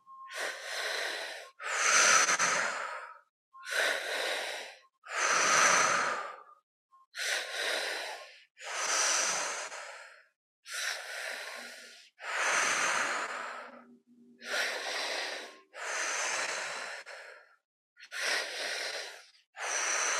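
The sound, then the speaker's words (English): Slow, deep breaths drawn in and pushed out during a guided breathing exercise, about a dozen airy bursts in a steady rhythm with short silent gaps between, some carrying a faint wheezy edge. “letting the breath do the work, moving in and out, clearing out anything that feels tight and out of alignment, and breathing in more power, more love, more connection, more contentment.”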